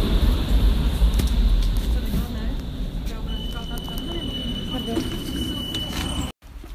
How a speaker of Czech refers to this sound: Takže pokračuju, já jsem nastupovala do šaliny, já se omlouvám, musela se něco vyřídit.